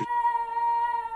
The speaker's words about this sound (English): Sorry, that was just my dog howling. you heard that, right? Yeah. Sorry about that. He's a howler. He, he, doesn't bark. He's a howler.